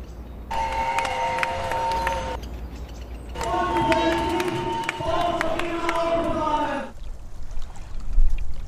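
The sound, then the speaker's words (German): A loud crowd of protesters fills a street in Vienna's city centre on 2 July, protesting against a planned road tunnel through the Lobau, with two long, steady horn-like blasts ringing out over the constant rumble of voices. “plätschernd bleibt, wurden eine Menge Leute am 2. Juli in der Wiener Innenstadt laut.”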